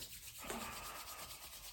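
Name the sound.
hands rubbing together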